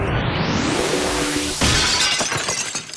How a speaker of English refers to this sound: Ah, yes, the sound, as we say, of rules being broken. I know that window shattering sound can be disruptive for some. We've gotten mailbag notes about that in the past.